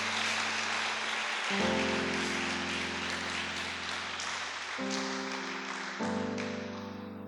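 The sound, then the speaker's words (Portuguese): Steady, dense applause from an audience clapping for Jesus in the evening fills the whole stretch, a continuous crackling wash of many hands clapping, with sustained low keyboard chords shifting underneath and no one speaking. “Você pode dar um aplauso para Jesus nessa noite, por essa palavra.”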